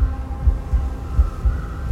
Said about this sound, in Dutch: Haar hart klopt als een razende.